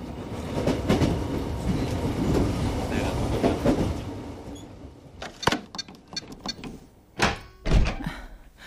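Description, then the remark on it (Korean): A subway train rumbles steadily along the rails for several seconds, then the noise thins out into a few sharp, loud clunks and thumps from the carriage as it slows. “다들 전철 타러 갈 거지?”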